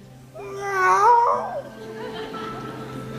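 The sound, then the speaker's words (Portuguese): A person imitates a kitten's meow with one drawn-out, rising-and-falling vocal call, fairly loud, followed by quieter background murmur. “Aí quando vem os troféus, mia igual um gatinho que eu tenho lá em casa. Miau!”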